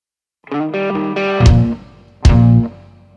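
A rock song intro: loud, distorted guitar chords ring out and change a few times, punctuated by two heavy crashing drum hits about a second apart.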